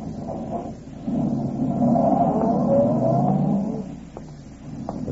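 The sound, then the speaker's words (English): A man gets into his car on a street and steps on the starter; the engine turns over and catches, then a steady motor rumble with a wavering whine swells and holds before fading as the car pulls away. No voices. “walked to his car, got in, stepped on the starter, and drove off.”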